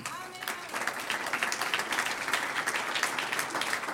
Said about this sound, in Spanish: Por la obra, un aplauso al Señor.